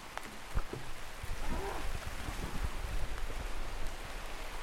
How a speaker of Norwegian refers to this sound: Her er det et veldig flott ASMR-regn her. Oi, oi, oi. Å, det var skikkelig regnlyd også. Det ble bra. Det ble høljeregn. Ja. Det ble god ASMR.